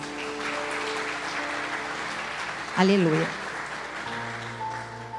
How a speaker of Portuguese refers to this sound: Se você crê, dê uma salva de palmas a Ele.